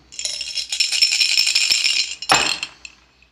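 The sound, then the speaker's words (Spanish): Dice rattle rapidly inside a cup for a couple of seconds during a gambling bet, then spill out with a sharp clatter and a few small bounces before settling, fairly loud with no voices. “El elegante caballero lanzó, levantó el vaso, tomó los dados, los dejó caer”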